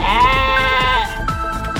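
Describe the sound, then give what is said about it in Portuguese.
A single goat bleat rings out loud, a wavering, nasal cry lasting about a second, then trailing into quieter rough noise with no talking. “francesa que passou seis meses sem tomar banho se apaixona por um bode e se casa no religioso.”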